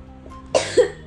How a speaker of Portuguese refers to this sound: Desculpa, gente, eu tô com tosse.